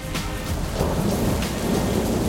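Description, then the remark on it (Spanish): Steady rain pours down while low thunder rumbles continuously underneath, a dense, even wash of sound with no voices. “El mar soplaba una brisa que contemplaba aquella química que se respiraba en la lluvia, un ambiente que proporcionaba vida y continuidad a todo.”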